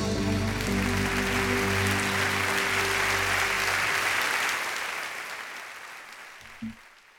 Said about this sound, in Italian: applausi d'obbligo è molto eh, molto spontanei